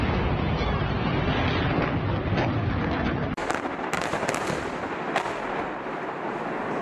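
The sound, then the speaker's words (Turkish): Heavy Israeli bombardment of Gaza booms and rumbles continuously on the fourth day of fighting, with sharp cracks and blasts punctuating a loud, dense roar throughout; no one speaks. “Hamas'ın cumartesi sabahı İsrail'e yönelik düzenlediği Aksa tufanı saldırısının dördüncü gününe girilirken de bölgeden bombardıman sesleri yükseldi.”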